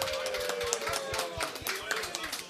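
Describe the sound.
An audience applauds an 18-year-old regular guest, a dense, irregular patter of many hands clapping at a steady moderate level, with some voices and a faint sustained tone mixed in underneath.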